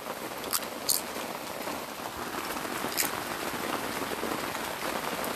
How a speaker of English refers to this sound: Anyways, it's currently raining, and I'm in a tent. So if you hear background noises, think of it as like something to help you sleep.